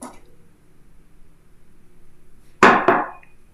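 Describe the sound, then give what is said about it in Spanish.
Someone takes a sip of water after a quiet pause, with two quick, sharp wet sounds in rapid succession fading into near silence. No one talks. “Déjenme le un traguito a mi agua porque me duele la gargantita.”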